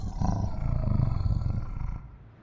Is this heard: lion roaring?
yes